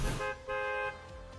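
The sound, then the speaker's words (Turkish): A short electronic game party-join chime that sounds like a bus horn: a brief honk followed by a longer, steady, brassy tone, loud with no one talking. “Otobüs şeyi, Bu sesten ben çok şey oldum yani irite olmuş bir insanım yani zamanında.”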